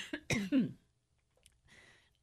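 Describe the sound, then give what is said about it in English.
A few sharp coughs and throat clearing in quick succession, followed by a short breathy exhale after a brief pause; no talking. “So sorry for the cough my cough button didn't work.”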